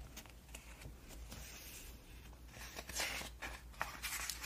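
Quiet papery rustling as magazine pages are turned, with several soft swishing flips and crinkles spread irregularly over a few seconds, no voices.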